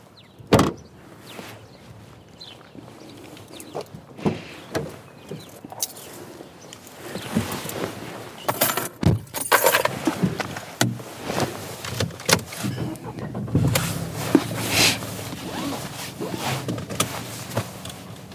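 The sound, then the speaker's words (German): A dog clambers into a car, with a sliding door rumbling, sharp thumps and bumps, and scrabbling and rustling as it settles; no one speaks. “steigt Jasper echt gut ins Auto rein, also auf Kommando sogar”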